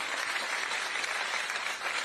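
Audience applause: a steady, dense wash of many hands clapping at once, loud and sustained throughout with no voices standing out.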